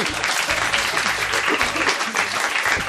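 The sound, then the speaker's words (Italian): A studio audience claps steadily throughout, a dense, even patter of many hands at a fairly loud level with no voices standing out. “Il pubblico Come si intitola? Applaude perché forse qualcuno già l'ha comprato.”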